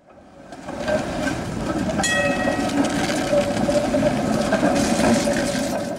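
An old tram from The Hague, dating from around the Second World War, rolls along its rails, a steady, loud rumble swelling in over the first second, with metallic wheel squeal and ringing tones riding on top. No one speaks.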